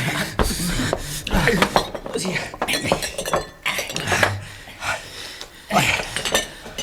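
Glasses clink and knock together in a quick, irregular flurry of bright, sharp chinks, mixed with scraping and shuffling as they are hurriedly handled and hidden under the bunks, with faint breathing underneath.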